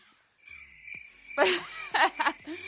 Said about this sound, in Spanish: Mira, te voy a poner los grillos